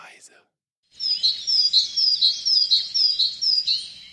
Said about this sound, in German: Und wir haben als Infotier diese Woche Vögel, die nicht in den Süden fliegen. Und äh, zwar haben wir uns eins ausgesucht, das ist die Kohlmeise.